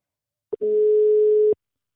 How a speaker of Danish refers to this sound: Det er en af mine bedste venner, og nu ringer vi til ham, så vi kan komme i gang med dagens afsnit.